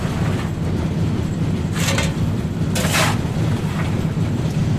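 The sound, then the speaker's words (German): A steam locomotive runs with a steady, heavy low rumble, broken by two sharp hissing bursts of steam about a second apart. No voices. “Dampfloks”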